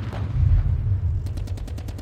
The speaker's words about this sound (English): a place where the only sound is that of artillery shells shattering